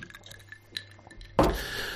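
Faint glassy clinks and taps from a whisky glass, followed by a louder, rushing clatter of glass contact that continues to the end. No one speaks.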